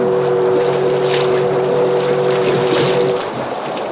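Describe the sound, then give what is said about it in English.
A paddle-wheel steamboat's whistle blows one long, steady low tone as a warning on a river, over a broad rushing wash of engine and water noise, then cuts off near the end while the rumble continues. “Once again, the whistle sounded as a warning.”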